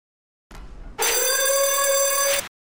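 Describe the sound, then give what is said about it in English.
A gym lunk alarm blares loud, a bright, buzzing steady tone held for about a second and a half after a short noisy burst, then cutting off abruptly. No one speaks. “I saw the lunk alarm go off for the first time in person”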